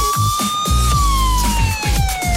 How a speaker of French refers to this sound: On va retrouver Arnaud Souk dans un instant après son jingle, évidemment.